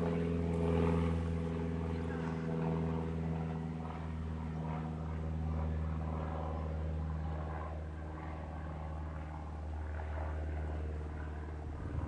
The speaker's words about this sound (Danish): Der var en flyver.